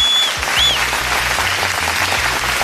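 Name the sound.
applause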